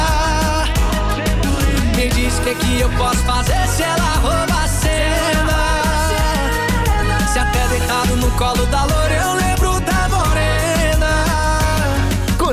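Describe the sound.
A pop song plays at full volume, a male singer carrying the melody over a steady, dense band backing with drums, bass and bright instruments throughout.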